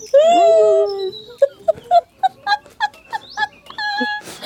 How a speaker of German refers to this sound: jetzt einen Hund gehört.